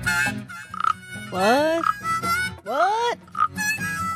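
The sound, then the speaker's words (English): A toy-like electronic frog croak from a gadget repeats several times in quick succession, each a loud, rising warbly call with short gaps between, while a voice briefly speaks between the calls. “it's supposed to be a frog, but it sounds more like crickets, if you ask me.”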